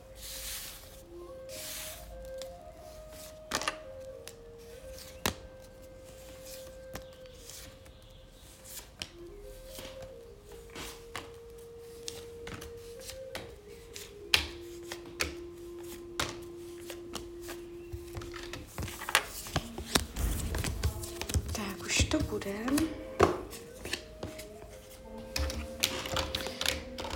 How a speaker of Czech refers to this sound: A já už se dívám na vaši fotku, míchám u toho karty a my se spolu podíváme, co nám Tarot poví o vašem období 2024.